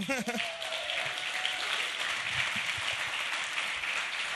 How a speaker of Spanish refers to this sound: Y pues bueno, es, es, es un aplauso también para ellos, ¿no?